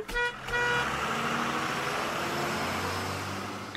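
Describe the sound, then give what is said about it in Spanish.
A bus horn honks twice, a short toot followed by a longer sustained blast, over a steady rumble of an idling engine and traffic. “Después voy a la parada de autobuses para subirme al...”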